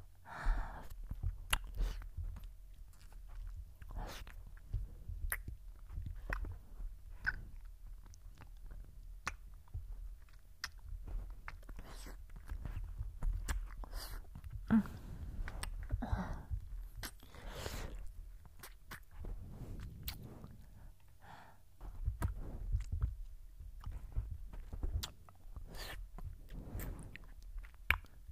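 Wet mouth sounds of licking at the ear, recorded on a binaural microphone, with continuous smacking, slurping clicks and soft breaths, intimate. No one speaks, and a low rumble stays steady underneath.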